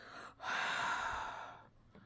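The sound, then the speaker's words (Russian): A voice imitates the heavy, labored gasping breath of a dying woman: one long, loud, rasping intake and release, preceded by a brief quieter breath, with no talking. “И вот, знаете, вот так вот она начала сильно дышать, и как будто с ног вот э, по животу, вверх до груди вот так поднималось нечто.”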